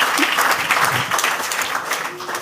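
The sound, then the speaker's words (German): An audience applauds, a dense, steady wash of many hands clapping at a fairly loud, even level throughout, with no distinct individual claps standing out. “Applaus”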